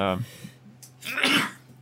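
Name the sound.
sneeze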